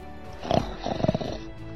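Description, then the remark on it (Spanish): A voice imitates the loud, rumbling snoring of a sleeping monster in a cave: two gravelly, growling snore bursts, the second longer and pulsing, with no other sounds around them. “Y roncaba.”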